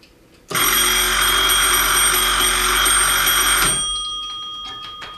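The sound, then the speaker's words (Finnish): An old telephone bell, from the era when calls were connected through a manual exchange, rings loudly in one sustained metallic burst of about three seconds, then cuts off, leaving a faint ringing decay and quiet clicks. “Olisi kiva kuulla, miltä kuulosti puhelu siihen aikaan, kun puhelut vielä yhdistettiin keskuksen kautta.”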